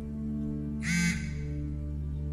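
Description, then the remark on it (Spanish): A mobile phone vibrating, giving a steady low buzz that runs the whole time, with a brief harsher rattling burst in the middle. No one speaks. “Es el teléfono que está vibrando.”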